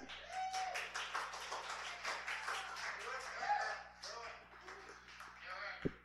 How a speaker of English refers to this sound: Give him a big round of applause, guys.